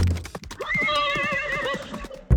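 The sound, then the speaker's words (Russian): A horse named Krit, ridden, lets out a loud, quavering whinny lasting over a second, while a quick, steady rhythm of hoofbeats pounds underneath as it bolts onto and gallops over a freshly leveled concrete path, with no voices. “Лошадь спокойно двинулась вперед, но через секунду рванула прямиком к дорожке из бетона, которую только что выровняли рабочие.”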